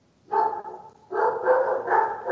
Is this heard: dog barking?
yes